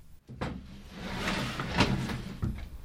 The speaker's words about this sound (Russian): Женщина подумала немного и открыла дверь.